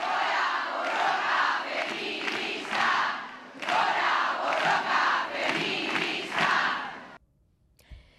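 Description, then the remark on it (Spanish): A crowd of women demonstrators in the streets on 25N shouts a chant in unison, two loud rhythmic bursts of massed voices with a brief pause between them, then the chanting cuts off abruptly into near silence. “Y al final, grito unánime.”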